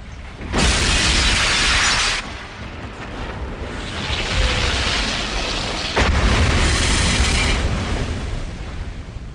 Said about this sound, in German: Und noch dazu wirst du belohnt durch diese Videosequenz der Explosion der Kathedrale